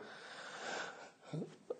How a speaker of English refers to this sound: Excuse me. Uh, laughed until I coughed.